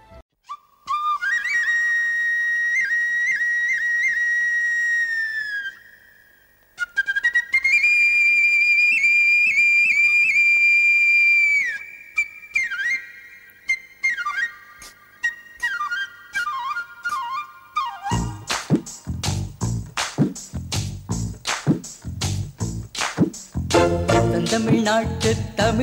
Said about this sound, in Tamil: அது வந்து தமிழ் பியூட்டியை டெப்த்தை தமிழ் லாங்குவேஜை பற்றி நிறைய வர்ணங்கள் எல்லாம் வர்ணித்து பாடின ஒரு பாடல் இதோ உங்களுக்காக